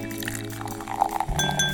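A champagne cork pops with a short burst, followed by bubbly liquid pouring and fizzing into a glass, fairly loud, with no one speaking.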